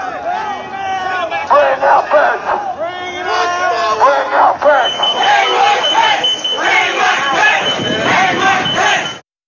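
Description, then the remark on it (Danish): A large, angry crowd shouts and chants loudly and continuously as it storms the US Congress on 6 January 2021, many voices overlapping in a dense roar, with a steady high electronic tone, like an alarm, sounding underneath. “Ja, det vi her hørte var et lydklip fra 6. januar 2021, hvor en vred folkemængde stormede USA's kongres, efter at Donald Trump i måneder havde påstået, at præsidentvalget i 2020 blev stjålet fra ham.”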